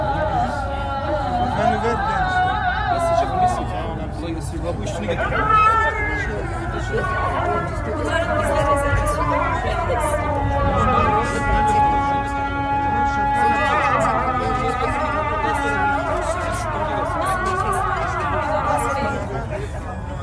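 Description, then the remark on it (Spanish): A call to prayer from the Blue Mosque, long wavering melodic phrases chanted in Arabic, soon joined by a second overlapping call from Hagia Sophia, rising over a steady murmur of people chatting and drinking at an open-air terrace between the two mosques. “van a escuchar entonces ustedes el llamado primero de la mezquita azul y luego van a cachar que empieza el llamado de Santa Sofía”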